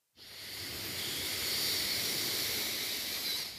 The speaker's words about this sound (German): Noch einmal tief ein. Ganz locker die Luft wieder rauslassen. Und ein letztes Mal, wir atmen tief ein.